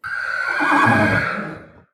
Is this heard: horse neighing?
yes